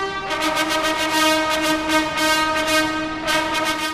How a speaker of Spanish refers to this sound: El sonido de las trompetas inundó el ambiente.